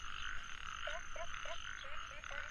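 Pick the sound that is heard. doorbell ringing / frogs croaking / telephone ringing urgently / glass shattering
frogs croaking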